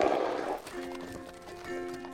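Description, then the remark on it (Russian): A harnessed horse's hooves clip-clop in a steady rhythm as it sets off on the road, while the animal lets out a drawn-out neigh at moderate volume, with no talking. “Бедный старик запряг лошадь и в путь отправился.”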